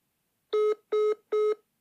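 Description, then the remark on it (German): A telephone busy signal after a call is placed and the line is engaged: three short, identical mid-pitched beeps in a steady, evenly spaced rhythm, fairly loud and with no voices. “So, ich rufe jetzt an.”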